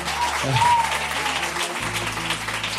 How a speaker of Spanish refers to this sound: Y obviamente el último aplauso de la noche es para